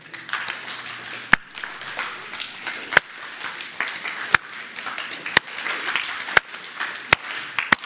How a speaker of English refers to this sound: We're not we're not clapping in unison yet. We all clap our own pace, and then we get in unison.